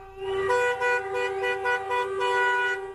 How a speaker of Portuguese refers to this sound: Motoristas de aplicativos fizeram um buzinaço em protesto.